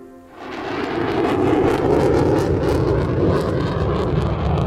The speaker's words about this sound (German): Ja, so klingen die Teile. F-35, die modernsten Kampfflugzeuge der US-Luftwaffe. F-35 sollen wir übrigens auch bald kriegen, solche Jets. Diese hier sind in der Luft über Alaska unterwegs.